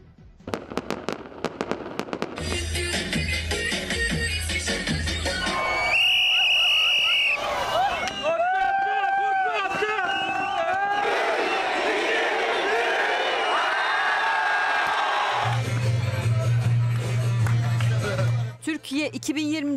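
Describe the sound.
A New Year's crowd in Turkey celebrates in packed squares amid loud fireworks: rapid crackling bursts, whistling rockets rising in pitch, and a steady roar of voices and cheering filling the background throughout.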